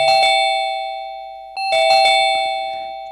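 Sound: doorbell ringing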